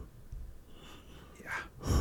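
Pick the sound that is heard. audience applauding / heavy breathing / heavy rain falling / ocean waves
heavy breathing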